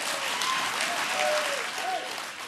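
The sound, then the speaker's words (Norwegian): Sustained applause from a large crowd of party delegates for their party leader after a speech in Norway, a dense steady wash of clapping that fills the whole clip at an even, fairly loud level, with faint voices or cheers rising through it. “Ingen ende ville denne applausen ta.”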